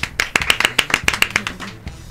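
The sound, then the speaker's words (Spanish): A short burst of applause for the film La noche de las nerds: brisk, sharp claps in a quick, fairly even rhythm, about a dozen in two seconds, then trailing off. No one speaks. “Un aplauso, por favor, para la noche de las nerds.”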